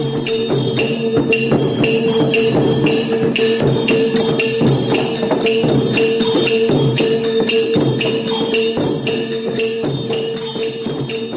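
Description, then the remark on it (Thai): A Thai long drum (klong yao) ensemble plays loudly and nonstop, its steady, dense drumbeats layered with sustained ringing metallic tones like gongs and cymbals, full, with no voices. “เสียงที่เอามาเปิดให้ฟังในวันนี้ เป็นเสียงของเครื่องดนตรีนะครับ และบอกตอนนี้ได้เลย ว่าเป็นเสียงของวงกลองยาวครับ”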